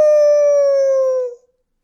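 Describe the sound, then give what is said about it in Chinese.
A single long wolf howl, loud and steady, holding one mid-pitched tone that sinks slightly before cutting off after about a second and a half, with nothing else around it. “待会儿把你们一口全吃掉！嗷！”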